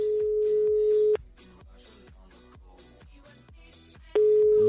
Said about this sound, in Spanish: Sí, es un oyente que todavía tiene opciones de llevarse esa cesta y que a ver si nos coge el teléfono para duplicar puntuación.